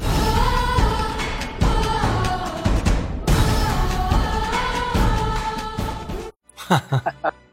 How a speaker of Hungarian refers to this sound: Ez, ez, ez kb. ugyanaz a dallam, csak sokkal magasabban, sokkal gyorsabban, kicsit pattogósabban, és a vége egy csöppet variálva van